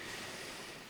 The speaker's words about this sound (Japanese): 録音してきた音が今のこの波の音なんですね。